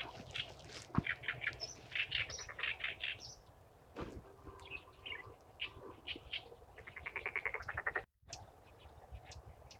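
Wild birds call repeatedly by the Sha River, on its north bank: bursts of bright, high chirps and rapid trilling phrases, some overlapping, over a steady low background rumble, with a brief dropout near the end.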